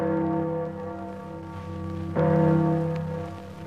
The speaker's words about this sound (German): Für dieses Glockengeläut spendete die zweite Kompanie einer Kampfliegerschule 500 Mark.